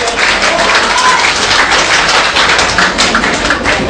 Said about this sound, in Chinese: 来掌声欢迎。